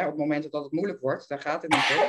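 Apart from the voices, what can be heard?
sneeze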